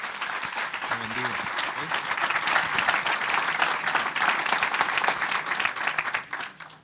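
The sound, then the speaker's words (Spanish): A large church audience claps steadily for several seconds, applauding God during a service, a dense, sustained wash of applause with a few voices briefly audible near the start before it tapers off at the end. “¿Por qué no le da un aplauso a nuestro Dios?”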